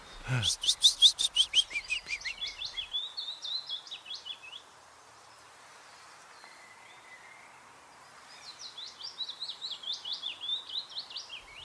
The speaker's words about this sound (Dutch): Zo ja, dat is hem. Dat is slepende hem. Ja, ja, ja, vinkenzang, precies.